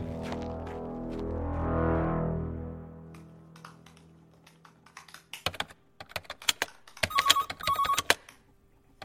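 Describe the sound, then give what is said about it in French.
A militant's mobile phone rings from a hidden-number call with two short electronic tone bursts near the end, amid quick clicking taps like typing, after a swelling low harmonic tone at the start. No one speaks. “Décroche, comme ça tu sauras. Bah non, je vais pas décrocher si je sais pas qui c'est.”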